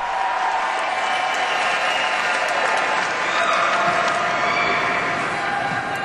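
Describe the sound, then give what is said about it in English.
A crowd at a ceremony applauds the young people steadily for about six seconds, many hands clapping into a dense, even wash of sound that holds its loudness from start to finish. “Let's give these young folks another round of applause.”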